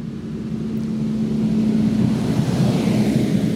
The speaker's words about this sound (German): Und ähm, ja, jetzt kommt hier, glaube ich, ein Trecker angefahren. Es könnte ein wenig laut werden.